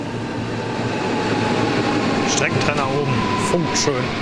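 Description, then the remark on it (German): An S-Bahn commuter train, the S8 coming from Wiesbaden, rolls into a station with a steady loud rumble and rising electric whine, joined by brief high brake squeals near the end as it slows. Faint voices murmur in the background. “Das gerade war die S-Bahn, die hier eingefahren ist.”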